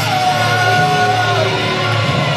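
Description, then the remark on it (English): A large, displeased wrestling arena crowd yells and shouts continuously after a match result, a loud, dense roar of many voices sustained throughout without a break, with no clear individual speech. “This crowd is not happy.”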